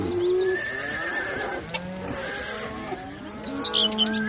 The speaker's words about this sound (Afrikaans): Al wat uitkom is nare, vals, kras skreeugeluide. Wat het van haar pragtige stem geword? Al die ander diere op die plaas skrik wakker toe hulle die nare geluide hoor en hulle is almal baie bang.